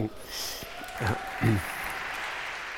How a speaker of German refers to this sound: Das, das, kann nur ein ironisches Klatschen sein, wenn hier drei Männer sitzen und behaupten, sie bringen den Feminismus genau, nach vorne. Nicht genau. nur das Klatschen, war, nicht nur das Klatschen war ironisch.